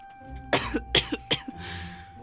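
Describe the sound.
A voice imitates the Hat's hoarse, coughing laugh: three sharp, raspy bursts with smaller huffs between them, trailing off into a breathy wheeze.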